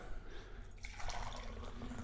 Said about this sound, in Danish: Øh, og vi hælder lille kaffe op.